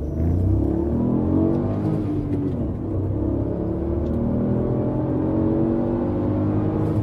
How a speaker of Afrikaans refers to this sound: Die 1000cc 3-silinder internasionale enjin van die jaar skop 'n heel bruikbare 290 kW uit.